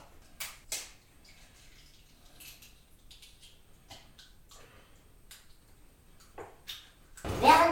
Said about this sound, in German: Wir schauen jetzt mal, ob das Hähnchen aufgetaut ist. Es wird nun das Huhn zu Auftauzwecken mit heißem Wasser gewässert.